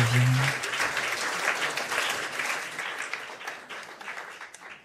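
A crowd breaks into dense, steady applause, many hands clapping at once in a broad hiss that holds fairly loud before gradually thinning toward the end. A brief low hum or tone sounds at the start.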